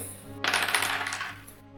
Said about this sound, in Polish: Dobrze zatem. To ja rzucam trzema kostkami z uwagi na to, że presję wynosi dwa.